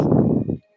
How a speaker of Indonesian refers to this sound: biasanya tuh lebih kencang lagi tadi tuh lebih kencang lagi karena um, tuh kayak ngorok dikit lah gitu nggak apa-apa sih wajar karena dia pasti capek banget lah ya